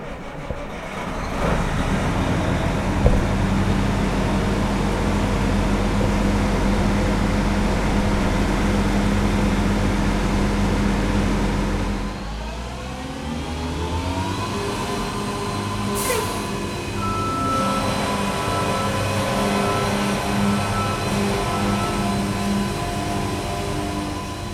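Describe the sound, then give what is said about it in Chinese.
A Taichung MRT rail grinding train, the 'devil car', starts up for a maintenance demonstration in Taichung, Taiwan, running with a loud, steady diesel rumble. Partway through, its engine note drops, then climbs with a rising mechanical whine as the machine gets moving. No one speaks. “就在刚刚哦，魔鬼车正式的发动了。”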